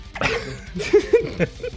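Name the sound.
hiccup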